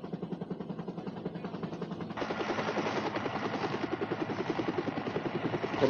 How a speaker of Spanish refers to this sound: fuimos transportando primero las cosas a la isla central, al único sitio a donde podía acercarse el helicóptero. Era preciso trabajar deprisa porque los helicópteros no podían aterrizar de noche en Puerto Ayacucho.